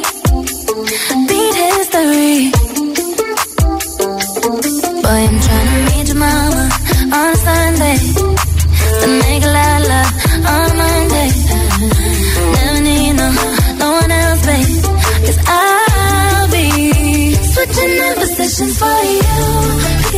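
A pop song plays at full, steady volume: a punchy beat and deep bass under layered melodic vocals and synths, running continuously without any talking.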